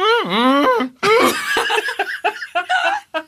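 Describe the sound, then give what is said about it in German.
A voice imitates a donkey's hee-haw bray with a long, wavering, pitch-swooping cry, followed by choppy, breathy vocal bursts that trail off into laughter-like sounds, fairly loud. “Manchmal hat man Pech, dann macht der Esel gerade Mouth-Taping, dann kann er halt nicht äh, IA machen.”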